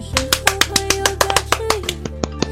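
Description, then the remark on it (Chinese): A quick run of sharp hand claps closing a show, about a dozen crisp smacks in a fairly steady rhythm, heard over a low sustained tone with no talking. “你看你鼓这个掌啊，就是啪啪啪三声的”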